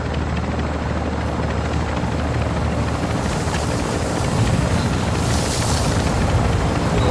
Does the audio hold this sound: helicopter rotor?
yes